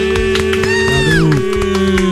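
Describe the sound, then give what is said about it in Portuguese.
A crowd applauds and cheers for a band, with steady claps cutting through a sustained hum and a voice rising in a brief whoop, loud throughout. “Uma salva de palmas para você.”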